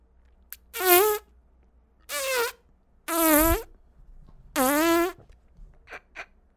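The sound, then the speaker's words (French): Four drawn-out, buzzy farting noises, loud, each lasting about half a second and separated by short pauses, followed by a couple of faint clicks at the end. “Est-ce que je vais être capable de vivre avec le fait que le gars, arrête pas de péter? Il fait juste ça!”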